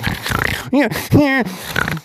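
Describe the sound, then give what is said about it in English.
A person vocally imitates a pig, producing a couple of loud nasal snorts and grunting squeals in quick succession, with rough snuffling breaths around them. “And they had badicorns follow them around to the school, and they were scary looking, and everyone screamed and ran away, and the badicorns made their pig sound.”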